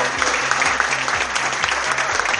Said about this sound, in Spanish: Así que nada, fuerte el aplauso para los chicos que participaron, los 12 equipos que participaron en Desafío 24.